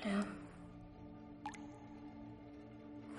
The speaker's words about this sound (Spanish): Las gotas del techo siguen cayendo en el cubo.